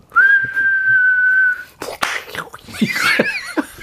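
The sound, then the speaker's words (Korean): A voice imitates a whistling firework: a steady, high whistled tone held for about a second and a half, then a burst of breathy popping and crackling mouth noises with wavering squeals. “그 불꽃놀이 성대모사 하는 사람이 있더라고.”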